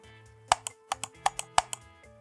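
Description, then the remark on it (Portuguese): Repeated computer mouse clicking, sharp clicks arriving in quick pairs like double-clicks, about eight in all, over a faint steady hum with no talking; someone clicking a mouse whose clicks fail to register. “Eu cliquei, cliquei, cliquei e nada.”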